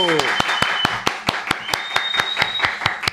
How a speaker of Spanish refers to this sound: Aplaudieron todos los liceístas que están en este estudio, eso habla de que el respeto por Ángel se da porque aquí nadie aguilucho.